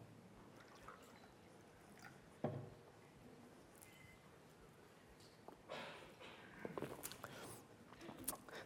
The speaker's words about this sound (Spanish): Perdonen, pero voy a servirme un poco de agua porque si no...